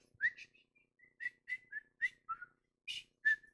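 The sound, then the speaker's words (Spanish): A person whistles a short melodic tune, a string of about eight clear notes rising and falling in pitch, with brief pauses between phrases, moderately loud with no talking. “Chiflaba y no era ni cristiana.”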